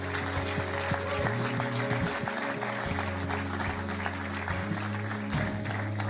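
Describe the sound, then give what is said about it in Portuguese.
A large church audience applauds steadily for several seconds after a prayer, a dense, continuous clapping, with sustained keyboard chords playing underneath. “Podemos dar uma grande salva de palmas, igreja?”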